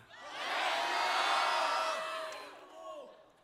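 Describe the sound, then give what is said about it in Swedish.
An audience in Sweden shouts the names of their home towns, such as Västerås and Värnamo, all at once after a count of three: a loud overlapping roar of voices that swells, holds for a couple of seconds, then trails off with a few stragglers. “Eh, men det vore intressant att höra vilken stad du kommer ifrån. Är ni redo?”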